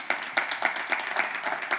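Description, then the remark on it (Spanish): An audience claps in applause for Jesus, a steady patter of many hands with regular stronger bursts roughly every quarter second, moderately loud and sustained without any voices. “un aplauso a Jesús.”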